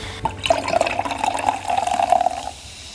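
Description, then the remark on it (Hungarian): Sparkling wine fizzes and bubbles steadily as a bottle is opened, for about two and a half seconds, a bright, hissing liquid sound with a faint tonal gurgle, then it cuts off. No one speaks. “Ez a finom kis pesgés valahogy mindenkinek olyan kedves, szerintem a fülének.”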